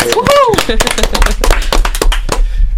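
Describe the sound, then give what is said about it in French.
A crowd breaks into quick, dense applause, many hands clapping at once for about three seconds, with a voice crying out over it at the start before the clapping thins and fades. “C'est un peu timide quand même les applaudissements. On recommence, on recommence.”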